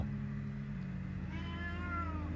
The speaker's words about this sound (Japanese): 今ちょっと猫が出てきて